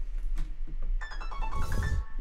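A phone's melodic ringtone chimes in after a moment, a short run of bright electronic notes stepping up and down over a low rumbling background, moderately loud.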